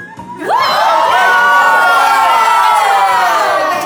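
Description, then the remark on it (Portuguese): A loud group of voices shouts together in one sustained, rising cry, starting abruptly and holding at full volume for a few seconds, energetic like a crowd yelling in unison. “Beijo no seu coração e todo mundo gritando assim, ó.”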